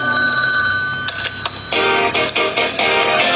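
household object, telephone ringing

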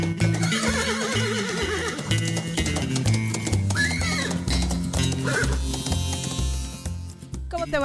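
animal, horse neighing

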